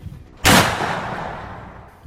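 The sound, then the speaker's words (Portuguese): A single loud Winchester rifle shot cracks sharply, then its echo rolls out and slowly fades over the next second and a half, with no voices present. “Mas você tá, mas você tá atacando com, com o Winchester, não tá? Isso. É. Aí é um tiro só.”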